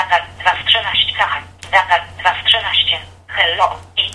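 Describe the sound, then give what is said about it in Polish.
A synthetic, telephone-quality voice from the TOX screen reader speaks in rapid, clipped bursts, reading out the contents of the phone's C drive (its memory) item after item over a low steady hum, fairly loud. “I w tym momencie słyszymy, że syntezator, program odczytu ekranu, w tym przypadku TOX, odczytuje nam zawartość dysku C naszego telefonu, czyli pamięci telefonu.”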